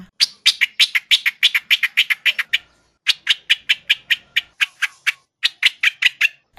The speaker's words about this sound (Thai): นกประหลอดหัวโขน หรือว่านกกรงหัวจุก ที่เป็นที่นิยมของคนในภาคใต้ไง อ๋อนกประหลอดกรงหัวจุกเคยได้ยิน ใช่ เขามีการประกวดเสียงร้องของมันด้วย ที่เขาไปแข่งกันร้องนั่นแหละ อ๋อว้าวมันตัวเล็กแต่เสียงเพราะเนอะ